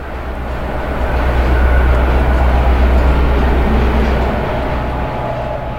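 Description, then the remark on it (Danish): A train rumbles steadily along the railway, a loud continuous low roar with rattling that swells slightly in the middle and eases off toward the end, with no one speaking. “Nu kommer toget.”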